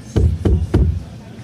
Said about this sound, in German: Weil äh, ich klopfe dreimal, du sagst.